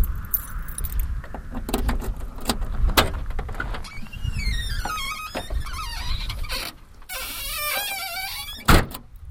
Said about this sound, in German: Das war der Kofferraum, ja. Der quietschte so schön.